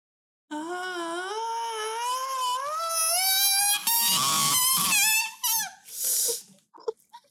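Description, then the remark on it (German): A long, piercing scream coming from a safe climbs steadily in pitch, wavering and strained, then breaks into ragged, gasping bursts before fading. It sounds like a voice imitating a terrible scream, loud. “Ein oh furchtbarer Schrei kommt aus so diesem Lady. Safe raus.”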